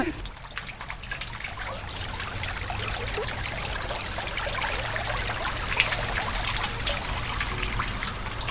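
Rainwater trickles and babbles steadily in a shallow, winding channel built into a town square, shaped like a stylized river meander, a continuous gurgle with no pauses and no voices.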